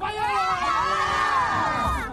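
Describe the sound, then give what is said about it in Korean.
A crowd of children shouts and cheers together on cue at a radio show in the rain, a loud, sustained burst of high-pitched voices lasting about two seconds, holding steady before trailing off slightly. “소리 질러!”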